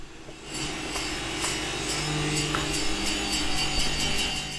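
Circular saws in a workshop hall whine steadily as three workers push wooden beams through them, a loud, continuous mechanical drone with sharp rasping bursts at fairly regular intervals and no voices.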